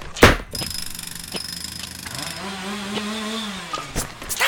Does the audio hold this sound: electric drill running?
yes